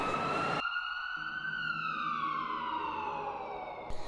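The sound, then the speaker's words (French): An ambulance siren wails loudly, one long tone that swells slightly and then slowly glides downward, following a short burst of rushing noise at the start. “elle est tombée dans les pommes. Appelez une ambulance”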